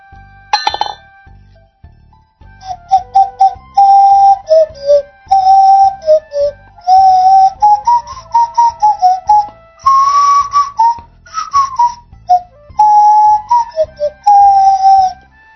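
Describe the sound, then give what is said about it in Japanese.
A nose flute, held in front of the nose and blown with breath from the nostrils, plays a simple melody in pure, breathy whistle-like tones, with short separated notes and sliding pitches, preceded by a brief clink at the start and no talking. “鼻の前に楽器を置いて、鼻息を吹き込みながら吹くので、けどですね、鼻で吹いてるってい意識もあんまりないんですよね。”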